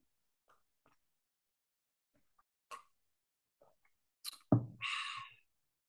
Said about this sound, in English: I'm gonna take a sip of tea and think about what what do I feel about Mo Salah at the minute.